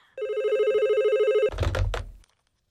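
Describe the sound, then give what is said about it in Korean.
A telephone rings in a family home with a steady electronic trill for over a second, then abruptly stops with a clunk as the handset is picked up, followed by brief rustling handling noise. “그렇게 5개월쯤이 지나고 제가 통통이에서 날씬으로 변해가고 있던 어느 날 저희 집으로 전화 한 통이 걸려왔습니다.”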